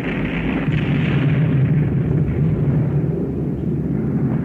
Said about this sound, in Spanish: al instante se produjo una aterradora y espectacular explosión que no habría compararla con nada conocido hasta entonces, 1865, ni siquiera con el rugido de una erupción volcánica.